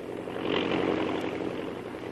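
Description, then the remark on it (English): A steady propeller airplane engine drones continuously in flight as the plane speeds toward its first stop, Albuquerque, New Mexico. A broad low hum with faint harmonic tones, holding even and fairly loud throughout with no voices. “as the plane speeds along to its first stop when the co pilot comes back to the cabin.”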